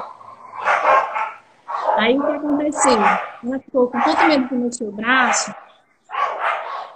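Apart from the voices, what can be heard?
dog barking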